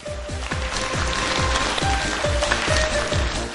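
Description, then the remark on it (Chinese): Audience applause: a dense, steady wash of clapping that holds at an even, fairly loud level throughout, with faint rhythmic low thumps pulsing underneath about twice a second. No one speaks. “听懂的，掌声鼓励一下。”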